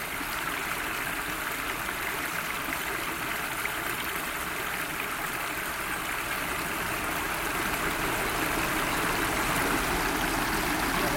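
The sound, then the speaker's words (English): A tiny waterfall on the River Frome in Gloucestershire, England, pours steadily, a dense, even rush of splashing water that fills the whole scene without pause, fairly loud. “I found a, a tiny, windsy waterfall at the river. I'm just standing here listening.”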